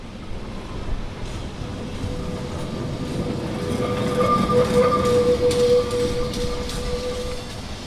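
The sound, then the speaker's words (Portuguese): A Lisbon tram grinds along the rails with a steady low rumble, while a thin, piercing metallic squeal rises and peaks midway before easing off. Loud, with no voices. “Nem mesmo o chirriar que lhes é característico”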